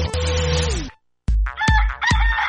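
A rooster lets out a loud crow that trails off, then after a brief pause comes a burst of sharp clucks and squawky calls.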